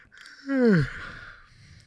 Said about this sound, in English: Did you just yawn on me? Huh? Did you just yawn?